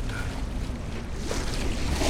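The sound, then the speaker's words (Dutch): A boat is pushed out onto the water, with a steady wash of wind and rushing water filling the whole moment at a moderate, constant level and no voices. “Kapertijn trok zijn vaders visserskleden aan en liet zijn boot te water.”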